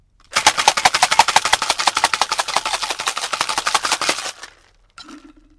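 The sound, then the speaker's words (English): A cocktail shaker holding a lot of ice is rattled hard for about four seconds while making a gin sour, a fast, even clatter of sharp hits, then it stops and a faint clink follows. “So, ideally, that's where you want a lot of ice in because then it will cool it much quicker, and you only need to give it a short, sharp shake for it to be cool you don't want it to be too wet.”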